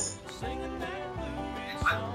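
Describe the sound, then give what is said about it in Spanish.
A dog barks in short bursts from a video being played back, a clip of a dog eating cereal, the sound slightly tinny and mixed with background noise and faint voices. “Ah, la, la historia, del perro y de la cabra.”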